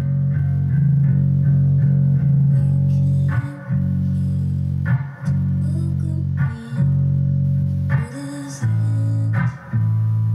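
A demo recording of a song plays loudly and continuously, with thick, buzzy sustained chords and a few brief dips between phrases; no one talks over it.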